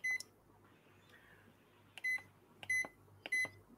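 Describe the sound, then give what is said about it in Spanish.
Four short electronic beeps from a Toshiba microwave oven as it is switched on, one near the start and three more spaced evenly toward the end, each a clear high tone with harmonics over a low background hum. “Porque yo la, la enciendo, ¿vale? Oyen el pitido, ¿verdad?”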